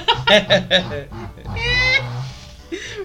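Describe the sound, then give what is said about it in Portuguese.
A chair gives a drawn-out, groaning creak as someone nearly falls, surrounded by short bursts of laughter and vocal sounds. “pra você que só tá ouvindo, a cadeira deu um sinal de vida aqui.”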